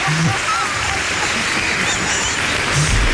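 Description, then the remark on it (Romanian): Steady applause from a crowd, a dense, continuous crackle of many hands clapping at an even loudness throughout, with a faint voice briefly audible underneath. “Uh, și astăzi, după cum spuneam, uh, aplauze încă o dată.”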